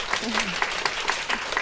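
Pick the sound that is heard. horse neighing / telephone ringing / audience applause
audience applause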